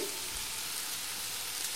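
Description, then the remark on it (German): Artichoke hearts, carrots, onions and bouquet garni herbs sizzle in a frying pan, a steady, fairly quiet hiss with fine crackling throughout and no voices. “Und das brutzelt jetzt hier.”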